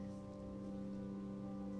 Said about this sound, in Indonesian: cuaca yang begitu syahdu saat hujan turun, memang membawamu kembali lewat sejuta kenangan.